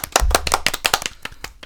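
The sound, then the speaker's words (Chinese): A brief round of applause welcoming two guest teachers: a quick, uneven patter of sharp handclaps from a few people, fairly loud, thinning out and stopping after less than two seconds, with no talking. “掌声欢迎两位老师。”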